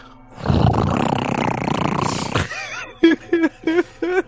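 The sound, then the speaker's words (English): A voice imitates the loud, roaring fan of a computer called Francis, making a harsh, breathy whooshing for about two seconds, then four short, loud whirring vocal bursts in quick succession. “People say that the computer fan is Satan's computer fan.”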